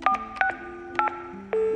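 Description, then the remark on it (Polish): Telephone keypad tones as a number is dialed to call the police: four short, evenly spaced two-pitch beeps, then a longer held tone, with no voices. “Zadzwonił na policję, kłamiąc, że jego imię i nazwisko to Jimmy Sale”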